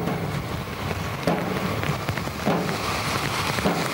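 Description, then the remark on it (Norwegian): Steady rain falls outdoors in Stavanger, Norway, during a silent procession on its way to the cathedral, a dense continuous patter spread across the whole scene with occasional louder drips and faint movement beneath it, no voices heard. “En stille prosesjon i regnet i Stavanger.”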